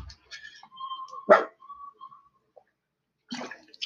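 A dog lying on a sofa lets out one sharp, loud bark, with faint whining tones around it, then a rougher, shorter burst of barking a couple of seconds later. No one speaks.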